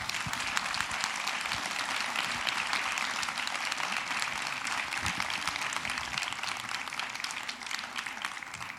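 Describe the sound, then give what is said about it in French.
Sustained audience applause welcoming two guests onto a show, a dense steady wash of many hands clapping at an even loudness for several seconds, with no voices over it. “Je vous remercie de les applaudir.”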